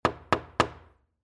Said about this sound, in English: I walk up and I knock on his door.